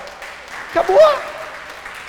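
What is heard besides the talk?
audience applause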